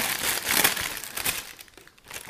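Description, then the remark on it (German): A bag crinkles up close, a steady stream of sharp, papery crackles that swell and fade in irregular bursts before tapering off toward the end. No one speaks. “Wir haben unsere coole Tüte hier. Ihr hört schon, cooles Geknister.”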